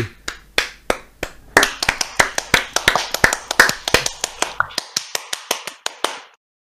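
Close, steady applause of a few pairs of hands clapping in a brisk rhythm, growing fuller and louder partway through before thinning out and stopping. No one speaks.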